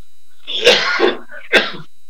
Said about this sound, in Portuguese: Desculpem aí, porque de vez em quando aparece uma, uma pigarra aí esquisita.